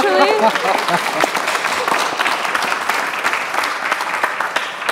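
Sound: audience applause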